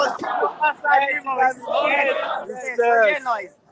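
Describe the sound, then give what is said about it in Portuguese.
Football fans on a bus shout and chant together, a loud, continuous mass of raised voices in uneven bursts that swell and drop over a few seconds. “Aí o busão, o é, busão é feito, a galera já tá, tá gritando, tá?”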